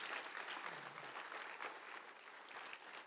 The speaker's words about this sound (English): Hey, wait, before you clap, for the people who came here really early to serve, to open up the doors, to get this high school ready. I just want to honor all of you. Thank you. Can we give them a clap and honor them?